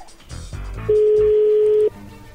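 A steady electronic phone tone sounds for about a second, loud and unbroken, following a few moments of rustling and handling noise as a number is dialed.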